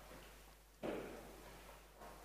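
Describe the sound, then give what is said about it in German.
A muffled firework bang goes off outside, a single dull boom that rumbles away, followed near the end by a fainter second pop against a quiet background. “Ah, da wird schon geknallt, super.”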